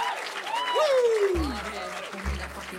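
Steady applause from a crowd welcoming a performer, with rising and falling whoops over it and two deep low thumps partway through.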